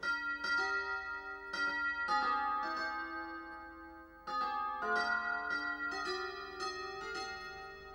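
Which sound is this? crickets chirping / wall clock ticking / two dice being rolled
wall clock ticking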